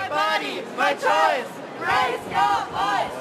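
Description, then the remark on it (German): Counter-protesters shout at the March for Life as it walks through autumn Berlin, Germany: a crowd yelling in loud, repeated bursts, like a rhythmic chant of several voices yelling together, with brief pauses between each call. “Dann wird spaziert durchs herbstliche Berlin, begleitet von den üblichen Störgeräuschen.”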